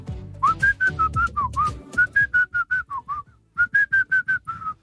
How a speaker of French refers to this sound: vous allez devoir me siffler une chanson avec le mot dedans. Vous êtes prêts Vas-y. Si je vous dis chérie.